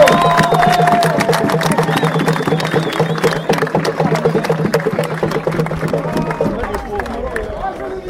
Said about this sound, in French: Finaliste de la Ligue de France de rugby promotion honneur, le rugby célois chenésien. Autant allez, on l'applaudit S'il vous plaît, on l'applaudit Bravo